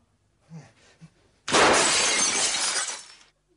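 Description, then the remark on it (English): A couple of soft, quick thuds, then a sudden loud crash as a man launches himself through a glass window on the fifth floor, with bright shards spraying and tinkling for over a second before it cuts off. “Before I realized what he was doing, he had launched himself at it and crashed through.”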